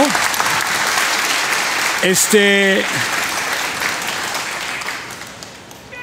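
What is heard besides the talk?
audience applause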